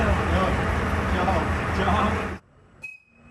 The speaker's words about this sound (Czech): Je půl deváté a první vlaky se začínají rozjíždět. Třeba tenhle míří do Prahy.